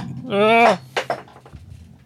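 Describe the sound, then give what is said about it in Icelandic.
A short, loud vocal exclamation, then a coffee cup hits the floor with two quick, sharp clattering knocks, followed by faint rattling and quiet background noise. “Kaffi bótt við dætt í gólfið hérna Þú verður til að klippa þetta hljóð saman”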